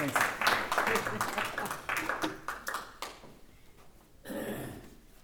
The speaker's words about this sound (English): Let's all give a round of applause